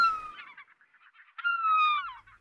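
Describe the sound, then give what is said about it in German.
A seagull flying low gives two drawn-out, slightly falling cries, the second louder and longer than the first, with no voices. “Ah, ah, jetzt hat mir so eine Möwe im Tiefflug voll auf den Fuß gekackt.”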